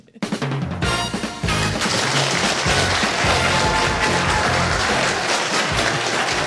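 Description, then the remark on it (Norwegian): A studio audience applauds steadily and loudly over the upbeat theme tune of a Radio Norge morning show, with a bouncing bass line, the clapping a dense continuous wash that starts abruptly and keeps going throughout. “Så hvis eh, alle er klare, og bare for å bevise at det er litt eh, folk her, så setter vi i gang kjenningsmelodien, og så klapper alle sammen i lokalet her.”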